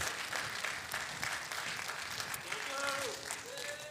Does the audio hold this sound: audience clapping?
yes